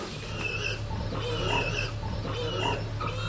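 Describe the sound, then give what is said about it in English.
Pigs on a farm grunt and snuffle steadily, a run of low, rough grunts with a few higher squeaky notes, over a constant low hum, with no one speaking. “You see her what a nice bum she's got, and that's the hams, and that's what you look for, as well as a long back, which is more pork chops.”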